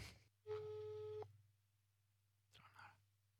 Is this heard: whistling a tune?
no